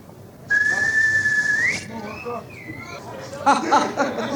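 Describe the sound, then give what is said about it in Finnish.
A person whistles an imitation of a sparrow call: a long steady high note that slides upward, then a couple of shorter wavering whistles, followed by a burst of voices chattering. “Ja varpunen menee näin.”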